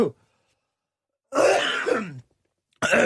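A person coughs and clears their throat: a short rasp, then a longer, rough hacking burst after a pause, and another starting right at the end. No one speaks.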